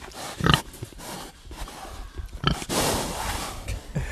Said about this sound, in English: Um, so I have two Mangalitsa uh, heritage pigs, uh, and they are in here. Sep and Lonnie.